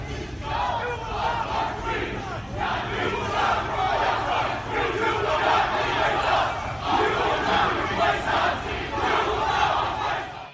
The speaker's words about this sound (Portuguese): eu acordei com gritos na praça ao lado do hotel. Escória racista! Ali, grupos antifascistas, opositores aos supremacistas brancos, estavam se reunindo para contra-atacar.